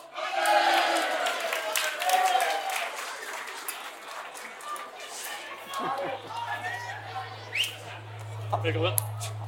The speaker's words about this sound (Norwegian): Mine damer og herrer, gi en varm applaus for Erling Rostvåg!